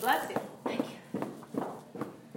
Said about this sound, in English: All right, holding onto the hoop. Stomp out your legs.